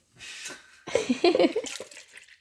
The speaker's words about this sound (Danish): Drikker du den der? ja, skal jeg hælde noget op til dig?